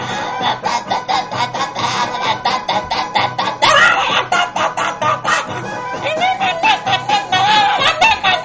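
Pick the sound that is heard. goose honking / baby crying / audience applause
goose honking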